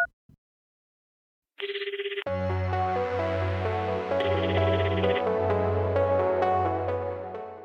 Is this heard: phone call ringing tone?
yes